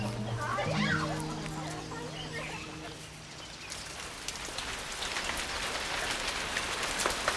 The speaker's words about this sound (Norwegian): varme byger som aldri tar slutt. Du kan nesten ikke se. Den røde jorda blir til dyp gjørme, landskap en sump.